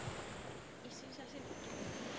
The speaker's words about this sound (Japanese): うわすごい結構な断崖絶壁の上を私今歩いてますこの眼下そうですね数十メートルくらい下にもう激しく白い波がうねるように打ち寄せています迫力ありますね